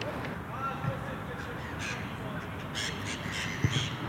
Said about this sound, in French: On a aussi des oiseaux. Surtout le matin, il y en a beaucoup le matin aux alentours de 7h, 8h.